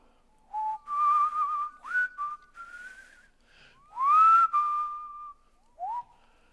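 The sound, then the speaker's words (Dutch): A man, a street paver working in a street, whistles the hymn Amazing Grace: a few clear sustained phrases with gliding pitch and short pauses between them, with no talking. “Of die stratenmaker in mijn straat. Ik denk, wat zit die nou te fluiten, die man?”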